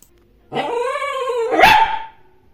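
A dog lets out a single drawn-out bark that turns into a rough growl, fairly loud, lasting under two seconds with no one talking.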